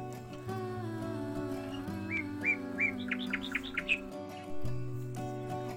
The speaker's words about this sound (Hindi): चिड़िया चहकती हैं